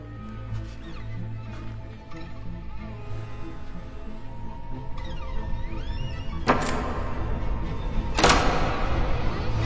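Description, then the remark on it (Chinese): Two sharp, loud knocks on a hotel room door at two o'clock, spaced a couple of seconds apart, cutting through steady background music. “时间一分一秒的过去，终于到了两点整，门外果然响起了敲门声。”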